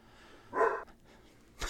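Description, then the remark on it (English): A dog barks twice, a short tonal woof followed a second later by a sharper one, moderately quiet, with no talking. “and in case you haven't noticed, we've got some dog friends back again.”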